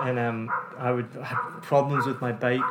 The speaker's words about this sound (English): Sorry about the dogs in the background. If you've heard previous episodes, you've heard these same dogs barking all the time. It's Vietnam.